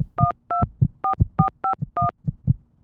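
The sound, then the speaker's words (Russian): Phone keypad buttons pressed in a quick series of about seven dual-tone beeps, each short and steady in pitch, interleaved with soft low thumps from the presses. “Макина нажимает кнопки.”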